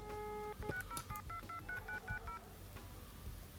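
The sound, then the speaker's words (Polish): A rapid burst of touch-tone telephone dialing made by pressing a phone's redial key, about ten short DTMF beeps in quick succession after a longer tone, over a low background hum. “Mm, a jak telefon dzwoni Klawisza redial”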